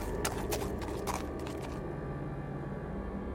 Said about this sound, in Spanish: En nuestra huida podía escuchar corriendo a un animal detrás de nosotros, unos cascos pesados abriéndose paso entre la maleza.